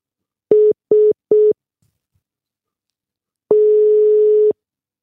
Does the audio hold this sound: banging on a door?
no